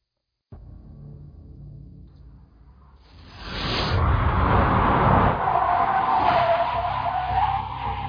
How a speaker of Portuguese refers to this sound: carro parou com um grito de pneus torto no meio-fio e Marcela, junto com Sanches e três outros policiais, saíram de dentro.